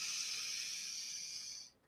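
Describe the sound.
A voice imitates a huge inhale, the big bad wolf drawing an enormous breath of air before blowing on a house: one long, steady, airy hiss of breath drawn in, loud, lasting under two seconds before cutting off into near silence.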